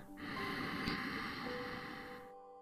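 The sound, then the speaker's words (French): A single slow, gentle inhale through the nose, a soft airy rush that holds steady for about two seconds before stopping. It's quiet, with no talking. “J'inspire doucement.”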